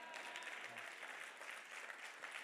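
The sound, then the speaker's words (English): Steady applause from an audience during a sermon, a dense wash of many hands clapping at an even level throughout, with no voices standing out. “I think I preach better than what you clap your hands.”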